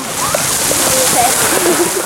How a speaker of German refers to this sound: Denn hier, ganz in der Nähe von Andernach, schießt der höchste Kaltwassergeysir der Welt bis zu 60 Meter in die Höhe